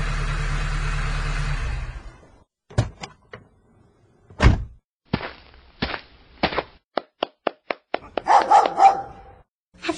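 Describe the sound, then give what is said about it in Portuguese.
A dog barks in a quick run of sharp, loud yelps at a small stone house with a chimney, following a low rumbling noise and a few thumps, with no one talking. “Eu seguro o cachorro. Esse cachorro é manso?”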